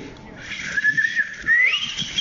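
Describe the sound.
A person whistles an imitation of a knife sharpener's pan flute, a thin tone that holds, then slides upward in a quick rising run before trailing off.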